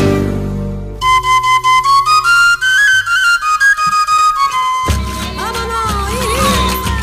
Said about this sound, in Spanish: Bueno, ya hemos escuchado esta, canción también, la segunda que escuchamos esta, tarde.